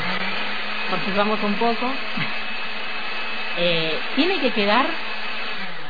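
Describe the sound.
A food processor whirs steadily and loudly throughout, a constant motorized drone, as it blends raw meat with pepper and seasonings into a smooth paste, while a person talks and laughs over it.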